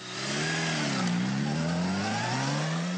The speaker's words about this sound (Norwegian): På Bruy paris har man låtit två motorcyklar köra genom Paris om natten en med ljudemission på laglige 65 decibel.